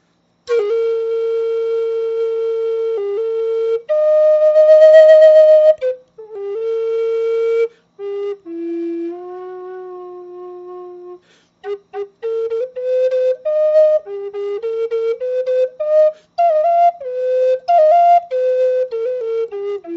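A solo flute plays a melody, moving between long held notes and quicker runs of short notes, with brief pauses between phrases. The tone is clear and fairly loud, with no voices.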